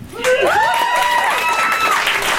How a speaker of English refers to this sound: Round of applause if you saw my face in the Willamette Week.